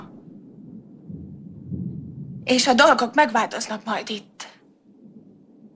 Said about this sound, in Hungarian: Beesik az eső. Kérlek, első, az eső. Én becsukom